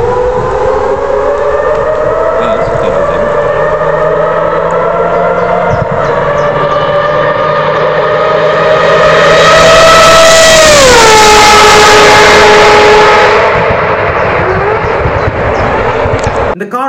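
A Mazda 787B rotary-engine race car's exhaust shrieks loudly and steadily with a siren-like wail, its pitch climbing gradually, then dropping sharply partway through before settling into a lower howl.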